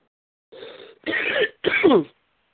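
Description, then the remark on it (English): Three heavy, harsh coughs in quick succession, loud, each a raspy burst lasting about half a second, with brief silences between and no talking, after smoking weed. “You're coughing up a lung”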